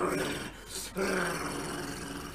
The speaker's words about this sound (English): then you push it open, and as soon as the door opens, you hear the dogs inside